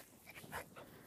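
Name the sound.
dog whimpering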